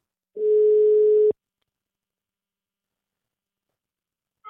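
A single steady telephone ringing tone sounds for about a second, loud, while a phone call is being placed, then cuts off into silence before a brief new sound begins at the very end.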